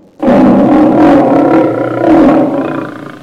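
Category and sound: animal, lion roaring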